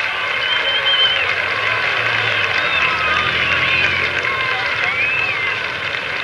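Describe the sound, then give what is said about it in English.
A large crowd roars and cheers steadily in approval of a motorcycle jump over 15 cars, with shrill whistles cutting through a dense, continuous wall of noise that stays loud from start to finish. “Evel Knievel gets the roar of approval from the crowd here”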